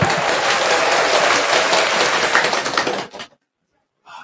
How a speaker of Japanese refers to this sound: 皆様、拍手でお迎えしましょ